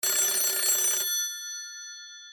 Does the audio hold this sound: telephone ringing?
yes